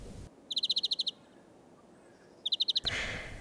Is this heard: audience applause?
no